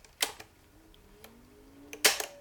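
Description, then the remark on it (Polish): Mechanical clicks from the four metal buttons on the lower right of a tape recorder's front (rewind, record, play, fast-forward): a sharp clack near the start, a lighter tick midway, then a louder double clack near the end, with a faint mechanical hum rising between them. “Po prawej stronie magnetofonu są na dole cztery przyciski metalowe Taki dźwięk wydają.”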